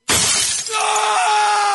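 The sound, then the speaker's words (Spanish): In an advert for a phone repair service, a mobile phone's screen glass shatters with a sudden loud crash, a dense burst of cracking and tinkling shards that gives way to a ringing, sustained tone of settling glass. “¿Se te rompió el celular?”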